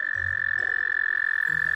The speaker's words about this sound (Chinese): 直到现在，大家只要听到蟾蜍的叫声，就知道马上要下雨了哦。